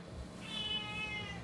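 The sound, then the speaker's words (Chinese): A single drawn-out meow from Bagel, the household's pet cat, high and slightly wavering, lasting about a second over a low background rumble, with no talking. “特别来宾说话了， 然后加入访谈吗？”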